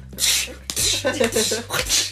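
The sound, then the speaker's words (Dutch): A voice imitates sneezing hard into a face mask: a quick run of about four forceful, breathy bursts, loud, one right after another with no other talking. “Maar ik nies dus fucking hard in dat mondkapje.”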